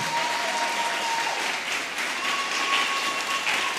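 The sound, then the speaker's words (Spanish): A church audience applauds the Lord loudly and steadily, a dense wash of clapping from many hands that fills the space without letting up, with a faint tone lingering underneath. “Dele fuerte, fuerte el aplauso al Señor.”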